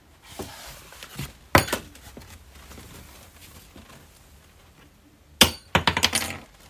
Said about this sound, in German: Oh, oh was ist denn da runtergefallen? Ist ein Schlüssel runtergefallen.